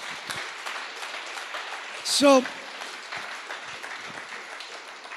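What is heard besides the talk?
audience applause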